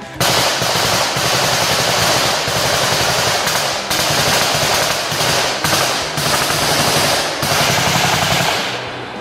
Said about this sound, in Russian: После этого он и отдал команду стрелять.